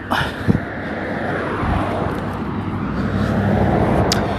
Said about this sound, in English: That was a truck, it's a line truck that just uh, left a whole bunch of fumes.